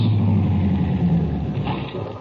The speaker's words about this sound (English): It is 11 a.m. on a Sunday in August 1949. A blue sedan comes to a stop in front of a ranch house 30 miles from the town of Salt Flats, Texas.